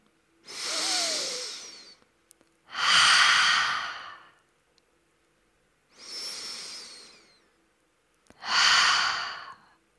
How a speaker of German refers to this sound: Dann atme tief ein und wieder aus. Hm. Und atme mit jeder Einatmung deine Gedanken wieder in deinen Körper zurück. Merke, wie du mit jedem Atemzug wacher wirst und mehr an diesem Platz und im Hier und Jetzt ankommst. Mach nur das. Atmen.